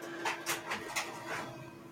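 A printer in a house runs with a steady mechanical hum, broken by a quick series of rhythmic whirring, scratchy strokes as the print head moves back and forth.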